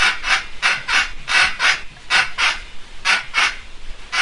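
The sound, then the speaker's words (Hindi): A washing machine creaks and rasps in a steady, rapid rhythm during its spin-dry cycle, about a dozen scratchy strokes repeating fairly loud, with no voices. The clothes wash fine, but these odd noises come when it spins to dry them. “जब भी washing machine चलती है धुल जाते हैं कपड़े तो लेकिन जब सुखाने की बारी आती है तो आवाज बड़ी अजीब अजीब सी आती है बेटा इसमें कैसी है आवाजें ये सुनियो बेटा अभी मैंने वॉशिंग मशीन चलाकर सुनाता हूँ मैं आपको ये सुनाइए”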